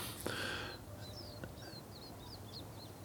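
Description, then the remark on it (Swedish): Birds sing in a quiet forest on a March morning, a string of quick high chirps and whistles repeating after a brief rustling noise at the start. “Det är en sån fantastisk sen eh, morgon, förmiddag i mars när fåglarna har börjat gå bananas som ni hör.”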